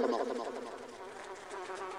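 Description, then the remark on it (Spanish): A fly buzzes steadily in a room with a wavering, droning whine, fairly loud, its pitch dipping and rising as it moves about. No voices are heard. “ese cuarto a esa mosca que quiere irse, pero no sabes cómo.”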